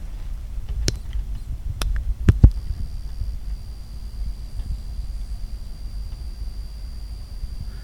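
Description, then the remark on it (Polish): Several sharp clicks as the button at the top right of a device is pressed, then a thin, steady high-pitched electronic squeal starts and keeps going at a faint level over a low background rumble. “Słyszymy taki mm, pisk, ni to, ni to warg, coś takiego.”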